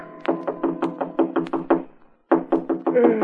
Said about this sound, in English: It was almost three in the morning when Andy knocked on my apartment door.